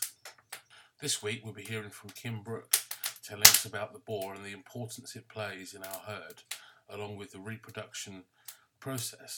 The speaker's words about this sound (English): It's a very cold day here today in South Lincolnshire, and you can hear my fire popping and crackling in the background.